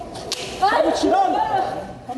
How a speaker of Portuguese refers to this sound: Em seguida, dois policiais o alcançam. O rapaz pede desculpas, mas leva um tapa no rosto.